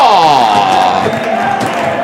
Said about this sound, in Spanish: Aplaude Castalia, que cerquita estamos, que cerquita estamos.